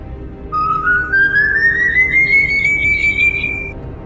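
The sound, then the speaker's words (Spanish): A single long, eerie human whistle, the whistling of the Silbón, slowly rises in pitch for about three seconds before cutting off, clear over a low murmuring background. “Mujeres, pónganse a rezar porque si escuchas cerca los silbidos, el silbón está lejos y no hay peligro.”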